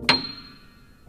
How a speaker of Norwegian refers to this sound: I andre enden av skalaen, helt til høyre på piano, finner vi tangenten for tonen C8, som tilsvarer over 4000 hertz og høres sånn ut.